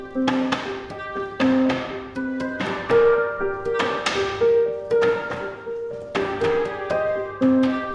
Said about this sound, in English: Sounds are going to be important later when you start hammering. Everything falls into place, and that's where the quality of the cask comes from. We have very big hammers and we can hammer without even looking.